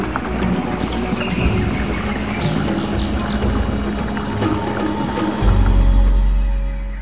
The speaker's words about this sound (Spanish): Y el sonido del río cada vez más cerca, más fuerte, más intenso.